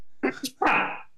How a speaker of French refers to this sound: ça, c'est éternuement. c'est ça, éternuement.